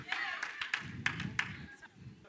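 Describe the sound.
A handful of people clap in short, uneven bursts, the sharp claps scattered and sparse rather than building into full applause, with a low murmur of voices underneath.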